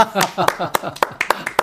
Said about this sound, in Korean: 어, 난 박수를 내가 잘못 쳤나? 그러고 있었어요. 정확, 정확하셨습니다.